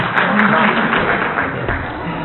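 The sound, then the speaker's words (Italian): An audience at a talk breaks into premature applause as the speaker is concluding, a dense wash of many hands clapping at once, fairly loud and sustained with no break. “Vi ringrazio, non vi volevo strappare un, un, un, un applauso anticipato.”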